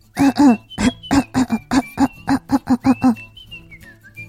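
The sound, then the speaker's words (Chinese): A rapid fit of about a dozen voiced, throaty coughs in a steady rhythm, loud and insistent, with a thin high whistling tone running alongside and trailing on after the coughing stops. “大脑董事长的话还没有说完，就开始咳嗽起来了。”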